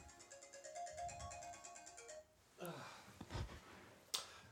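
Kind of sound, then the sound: signal or alarm, telephone ringing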